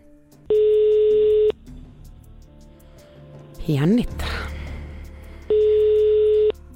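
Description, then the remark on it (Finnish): Two long, steady ringback tones sound about four seconds apart with no answer, an outgoing call on line seven to a selected contest caller, ringing unanswered. A voice briefly speaks in the gap between them. “nyt kannattaisi ehkä Joo. vastata tähän puhelimeen.”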